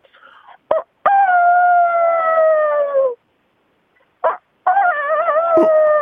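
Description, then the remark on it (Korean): A phone caller's voice imitates a rooster crowing in two long, loud, drawn-out calls, each preceded by a short sharp yelp, with a brief pause between them. “닭만 먹고 살아와서 닭입니다라고 보내주셨고, 맞습니까?”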